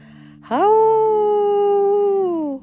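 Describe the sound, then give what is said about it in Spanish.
A single loud, drawn-out wolf-like howl rises sharply, holds a steady wavering pitch for about two seconds, then slides down and fades, over a faint steady background hum. “Contempló la luna dorada y aulló lo más alto que pudo.”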